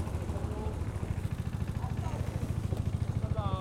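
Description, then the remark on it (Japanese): A small go-kart engine runs steadily, its rapid, even low putter chugging throughout, with a muffled voice faintly audible underneath, as the kart leaves the pit lane and enters the track during a practice session. “エンジンの音で入ってるかどうかわからんですけどとりあえずやれるだけやってみます”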